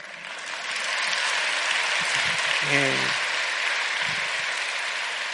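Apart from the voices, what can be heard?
audience applauding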